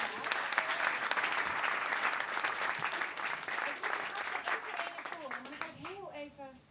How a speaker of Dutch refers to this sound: Geef haar eens een groot applaus.